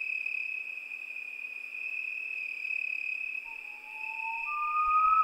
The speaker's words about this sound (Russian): Где-то вдали снова послышалось уханье ночной птицы